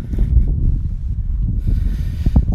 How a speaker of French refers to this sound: Attendez, il y a un petit peu de vent là. Je vais le laisser passer parce que je pense que vous entendez moins bien.